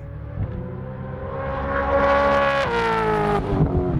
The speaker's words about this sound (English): That's the sound of Cam Waters' Monster Energy Racing Gen 3 Mustang during testing at Winton last week, just to confirm that the 5.4 litre Ford Coyote still has the traditional V8 bark. Maybe a bit high pitched, but a healthy roar nevertheless.